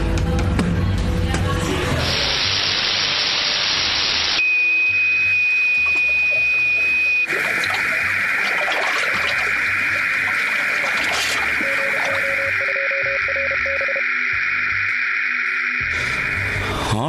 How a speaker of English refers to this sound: A couple of things that I'm hearing water. Yes, definitely. Wind. Something that's resembling a machine.